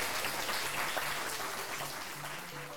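An audience in Cardiff applauds a guest at the close of a live event, a dense wash of many hands clapping at an even level for a few seconds, with a faint low hum beneath.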